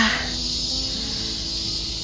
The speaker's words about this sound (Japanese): 聞こえますそう久しぶりのセミさんたちの大合唱ですよかった